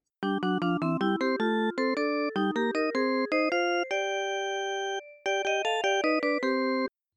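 A phone rings with a bright, melodic electronic ringtone, a quick run of chiming notes that repeats after a brief pause, loud and clear with no one talking.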